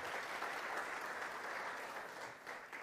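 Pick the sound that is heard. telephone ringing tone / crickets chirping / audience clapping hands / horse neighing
audience clapping hands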